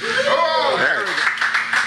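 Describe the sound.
A crowd breaks into scattered clapping before a speaker's talk, building into steady applause, with voices and a bit of laughter mixed in over the first part.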